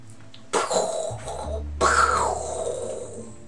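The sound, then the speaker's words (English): A voice imitates thunder with two rough, rumbling bursts, each swelling then fading into a drawn-out growl. The imitation is fairly loud, and there is no talking. “That was actually me making sound effects, guys. I didn't want you to actually think that there was a lightning storm going on in our background.”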